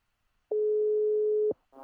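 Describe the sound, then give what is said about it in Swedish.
A telephone ringback tone heard while placing a call: one steady, even one-second beep, clear and fairly loud, followed by a short pause before another sound begins at the very end. “Då ringer vi.”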